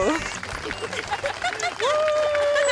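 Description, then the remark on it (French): A burst of applause with dense, rapid clapping, mixed with voices and cheering; partway through, a steady sustained tone rises and holds under the claps to the end. “Une dernière main d'applaudissements”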